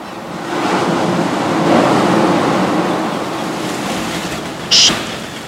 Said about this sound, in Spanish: Ahora, en exclusiva, el ruido del mar.